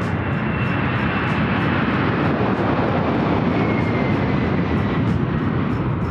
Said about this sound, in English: the early stages of air launch, which is the takeoff of the aircraft from the runway, uh, to begin our transit time of of about an hour over to our Pacific Ocean drop point, at which point we will release Launcher 1 to begin powered flight to orbit.